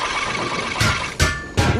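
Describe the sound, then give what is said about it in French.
A 4x4 engine cranks in three short, rough bursts over a steady mechanical drone, turning over without catching because its battery is dead. The sound is moderately loud, with no voices. “Attends, je vais filer un coup sur le moteur.”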